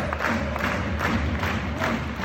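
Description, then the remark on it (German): A dense stadium crowd roars steadily, with scattered whistling at the referee rising out of the din. The sound is loud and continuous, with no single voice standing out. “Du kommst auf den Platz und die Zuschauer pfeifen dich aus.”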